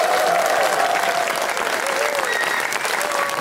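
Sustained audience applause for a show's house band, a dense steady wash of many hands clapping at full volume throughout, with a few faint whistles rising above the crowd noise.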